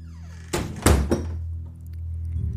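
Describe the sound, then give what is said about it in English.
A big wooden door slams shut: a quick knock, then a deep, booming thud and a short rattle of the frame, fading into a low, steady room hum. “she adds, before cheerfully rushing off to meet Lucas, letting the big wooden door slam shut behind her.”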